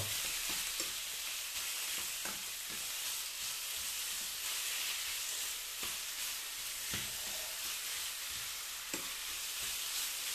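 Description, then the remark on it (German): Small chicken pieces sizzle steadily in a hot pan as they are browned all around, a continuous bright hiss broken by a handful of scraping, clattering spatula strokes as the pieces are stirred, loosened and turned so they don't stick together. No voices. “Und das Hähnchen jetzt einfach rundherum anbraten, die kleinen Stücke.”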